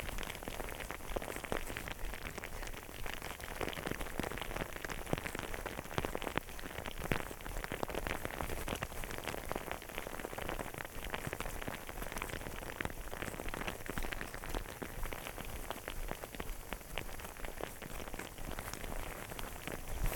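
Hail falling steadily with no rain mixed in while the sun is out, a dense, continuous patter of countless small impacts on a hard surface, evenly loud throughout with no voices and no pause.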